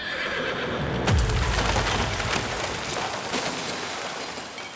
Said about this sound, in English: The horses loosed their own strange, piercing brays.